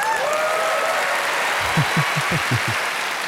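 A burst of dense crowd applause played in as a sound effect to welcome a guest, many hands clapping steadily for a few seconds, fairly loud, with a few soft thuds toward the end and no voices.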